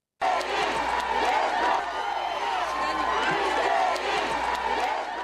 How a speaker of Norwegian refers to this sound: I den sørkoreanske hovedstaden Seoul jublet folkemengder til sin nye president Moon Jae-in idet han gikk gjennom et hav av mennesker for å gå på scenen for å gi sin seierstale.